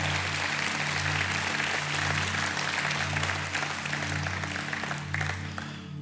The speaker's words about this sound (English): Give God a hand clap.